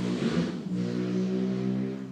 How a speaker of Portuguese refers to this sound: Moto do inferno.